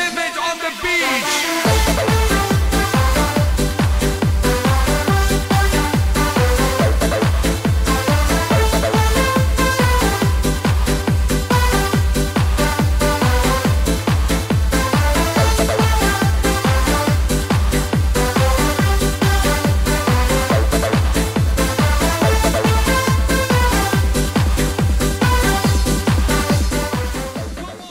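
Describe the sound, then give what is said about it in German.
A loud, steady dance track with a thumping four-on-the-floor kick drum, bright hi-hats and dense synth layers, kicking in after a brief quieter intro and driving on without any talking. “Und jetzt lass uns mal krachen hier. Los. Wir hören rein.”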